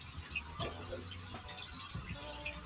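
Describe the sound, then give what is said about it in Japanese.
Oil sizzling and crackling steadily as food is deep-fried plain, without batter (suage), a dense hiss dotted with small quick pops, heard alone at a moderate level. “はい、なしのパチパチピチピチ、油の音がいい感じ。”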